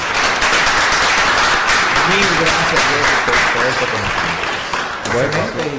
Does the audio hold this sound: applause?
yes